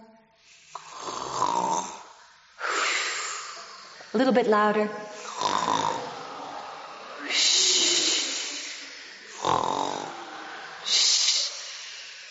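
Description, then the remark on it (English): Several voices imitate snoring in repeated, loud, raspy bursts, each followed by a hissing exhale, with a brief spoken prompt between them. “And the hunter was snoring. Can you snore?”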